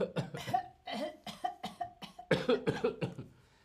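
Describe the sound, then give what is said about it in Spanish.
A run of fairly loud coughs, about eight or nine short harsh bursts in quick succession with brief pauses between them, with no talking. “tos. La tos.”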